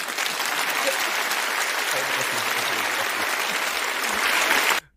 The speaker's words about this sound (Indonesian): dong atuh keprok dulu dong guys kasih keprok